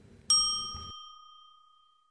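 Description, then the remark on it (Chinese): A single bright ding strikes once, a cue in a children's question-and-answer game telling the children to say their line; a clear bell-like chime whose high, pure tone rings out and fades slowly over about two seconds, with a faint low rumble beneath its start. “请小朋友们听到“叮”的声音后，说出你的那一句台词。”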